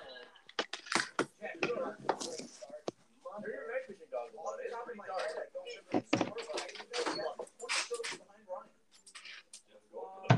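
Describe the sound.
After the doorbell rings, a door is handled and opened to answer it, with sharp clicks and thumps from the latch and frame, while voices talk steadily throughout, partly covering the sounds.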